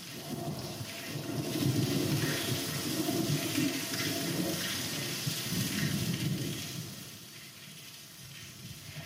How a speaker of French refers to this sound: Et l'orage a éclaté.